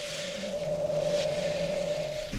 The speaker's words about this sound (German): Wir sind etwa 100 Meter entfernt. Wir sehen durch die Luft das Flimmern der Hitze, hören das Fauchen des Vulkanes. Also wenn es rauskommt, ist es um die 1100 Grad. Wir sind nicht weit von der Bocca.